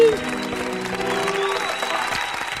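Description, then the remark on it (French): Steady audience applause, a dense crackle of many hands clapping at an even loudness throughout, with a faint tonal hum and murmuring voices underneath. “Stop les applaudissements Stop, stop, on n'a pas le temps pour ça.”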